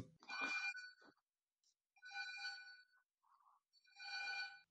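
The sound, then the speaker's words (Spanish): An electronic doorbell rings in three bright, melodic bursts, each about a second long and spaced roughly two seconds apart, with no one speaking over it. “habíamos hecho la pausa porque ha sonado el timbre, cosas que pasan en, tiempos post-pandémicos.”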